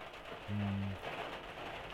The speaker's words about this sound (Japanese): 今日は4月13日の月曜日ですね、えー、こちらはかなり強く雨が降っています